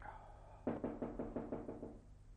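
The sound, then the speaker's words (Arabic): A quick, evenly spaced series of about eight knocks on a wooden door, fairly loud, with no voices and only a faint background hiss. “ينقر على الباب مرة أو مرتين في البداية دون أن يتنبه الشاعر لوجوده”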